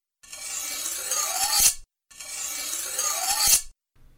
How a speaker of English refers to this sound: And how about a slashing or cutting sound for the slashes?